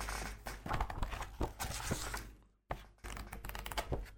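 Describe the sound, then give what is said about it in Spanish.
Heavy pages of a book being handled, with dry papery rustles and soft thumps as sheets are lifted and turned, a brief pause, then more crisp handling. “lo que pesan estas páginas. Es un libro precioso”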